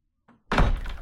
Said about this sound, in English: The boss was jolted awake by the sound of the storm door of the hut being slammed shut.